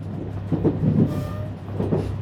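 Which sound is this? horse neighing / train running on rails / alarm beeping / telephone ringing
train running on rails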